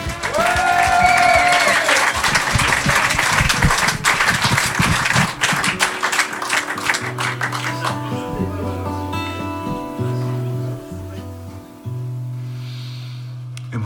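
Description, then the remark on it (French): An audience at the Blues Café claps loudly for about six seconds as two folk guitarists are welcomed on stage, with a brief whistle early on, then the applause thins out and gives way to a few steady, sustained low tones. “Sur la scène du Blues Café, je vous demande d'applaudir”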